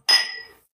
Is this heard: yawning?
no